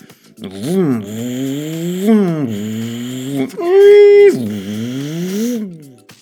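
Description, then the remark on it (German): Buzzy, synthetic car engine tones from a retro Hot Wheels video game, including the Hot Wheels High school bus, rev up and down in several sweeping pitch glides, with a brief higher steady whine in the middle. Loud, with no talking. “Ihr hört, alle etwas unterschiedlich, nicht immer passend, aber damals klangen die Autos auch eher so.”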